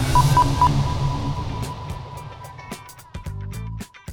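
A signature intro sound that opens every YouTube video of the children's channel Perro Chocolo: three quick bright beeps and a lingering tone, then a burst of snappy percussive hits and punchy chord stabs, loud with no voices.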